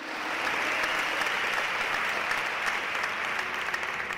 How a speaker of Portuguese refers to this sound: Você pode dar a salva de palmas para Jesus?